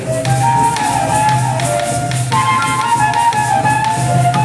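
A song plays steadily throughout, with a bright, wavering melodic line over a bed of low sustained notes and regular tapping percussion, fairly loud and without any talking.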